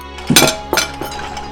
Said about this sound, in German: Wir hatten es kommen sehen und wichen bereits zurück, bevor Babo Natales Faust auf das Besteck donnerte.